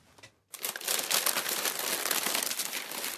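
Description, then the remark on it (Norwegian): A roll of brown paper bearing the play 'Tsjernobyl-fortellinger' at Nord-Trøndelag Teater, Stiklestad, is crumpled and crinkled steadily, a dense, bright crackling rustle that starts after a short quiet moment and continues without pause, fairly loud and with no voices. “Dette er ikke lyden av radioaktivitet. Stråling høres ikke, den ses ikke, den bare er der år etter år. Ja. ja en rull gråpapir rett og slett med forestillinga på.”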